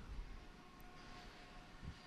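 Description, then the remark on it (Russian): A train rumbles past outside an office, a steady low roar with faint tonal whine riding over it, continuous throughout with no voices. “А, так, у меня тут поезда ездят в офисе, если что.”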